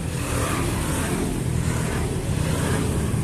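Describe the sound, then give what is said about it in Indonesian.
Motorcycle engines rumble steadily along a roadside, a continuous loud drone of passing traffic with no pauses and no voices. “ya dari tadi ada suara-suara motor ya ini di, di pinggir jalan pinggir jalan”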